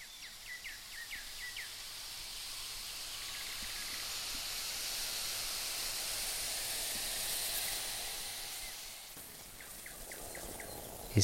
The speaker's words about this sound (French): Celui-ci est le son de notre seconde euh, cafetière italienne, un peu plus grande que la précédente.